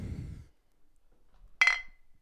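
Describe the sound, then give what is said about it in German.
A single bright glass clink rings out sharply after a low rumble fades, with a short ringing tail, as two glasses of beer are touched together in a toast. “Wir haben ein Hopfengetränk dabei. Wollen wir erstmal anstoßen.”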